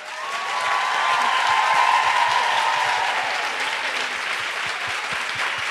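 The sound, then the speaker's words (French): A large audience applauds loudly and steadily for three performers at an evening event, a dense wash of clapping lasting several seconds, with faint cheers or whistles rising briefly within it. “Alors applaudissons-les déjà très fort.”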